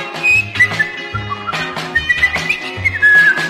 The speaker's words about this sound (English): So he come, flipping and skipping through the woods, happily whistling a little song.